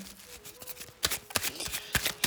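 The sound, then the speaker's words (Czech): A deck of cards being shuffled for a card reading, a run of quick papery riffles with several sharp bursts of flapping cards and soft clicks, no voices. “Já už mám před sebou vaši fotku, míchám u toho karty a mrkneme teda na to.”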